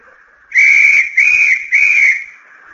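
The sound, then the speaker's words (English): A whistle is blown three times in quick succession as the signal for a thousand skin divers to enter the surf of the Pacific, each blast loud, shrill and steady, lasting about half a second, with no voices. “On that whistle, a thousand snorkels were slurped into place Now the mandolins are held over the heads of the skin divers.”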